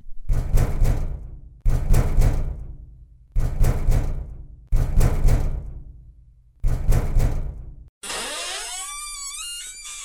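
Loud, heavy knocking on the wooden front door of a house by two people on a dark, foggy, thundery night: five separate bursts of quick raps with booming, lingering tails, followed by a long, wavering creak. No one speaks.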